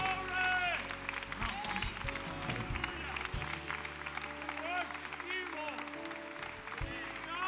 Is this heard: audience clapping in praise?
yes